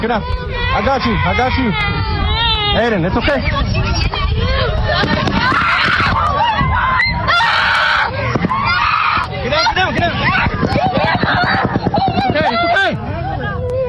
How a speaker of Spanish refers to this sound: Ahí escuchamos el tiroteo, ellos están eh, pues tirados en el pasto ahí y una persona les dice, todo está bien, tranquilos, y los niños están llorando